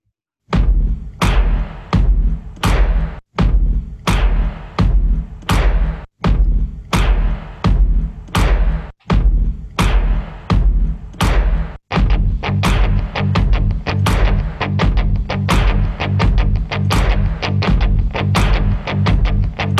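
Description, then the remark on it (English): A new theme song plays loud, driven by a steady, punchy drum beat over sustained tones. It gets busier and denser about halfway through, with no talking over it. “Um, okay, I have a new theme song. Do you want to hear it?”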